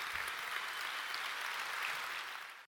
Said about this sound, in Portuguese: Nessa semana, esses irmãos e irmãs estiveram servindo. Quero convidar você a dar um aplauso bem forte a todos os irmãos que serviram nessa semana.